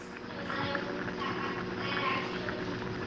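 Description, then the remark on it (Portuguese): Steady home kitchen ambience dominated by continuous bubbling water as pasta is made, a dense, even hiss-and-gurgle, with a faint tonal microwave beep and a child talking in the background. “água borbulhando, macarrão saindo, micro-ondas tocando e o som de criança lá no fundo conversando.”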